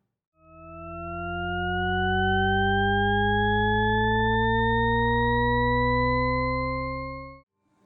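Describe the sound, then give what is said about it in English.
A Shepard tone: stacked octave sine tones glide steadily upward for about seven seconds, producing a smooth, continuous rising pitch that seems to climb without end, fairly loud and alone. “Superimposed sine waves separated by octaves trick the ear into thinking it's hearing a note that forever rises or falls.”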